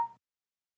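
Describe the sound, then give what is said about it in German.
A single short electronic notification tone from a mobile phone signalling an incoming message, a quick faint beep lasting a fraction of a second, followed by silence. “Scheiße, okay, das war mein Handy.”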